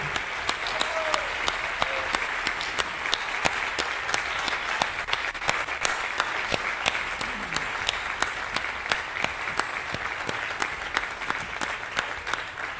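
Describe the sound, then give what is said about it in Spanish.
Sustained audience applause at the JPod awards as the organizer comes up to present a prize, a dense steady crackle of many hands clapping at even loudness for the whole stretch, with no voices standing out above it. “Venga, y ahora no paréis de aplaudir porque las palmas están para aplaudir.”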